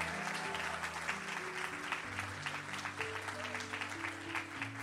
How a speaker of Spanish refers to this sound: Todo el que va a correr con la visión, que le dé un aplauso fuerte al Señor.